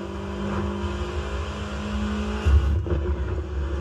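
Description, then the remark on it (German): A car engine drones steadily with a strong low rumble, then surges louder for a moment as it accelerates, sounding like a game's engine audio. No one speaks. “Ich fühle irgendwie, das Auto ist langsam.”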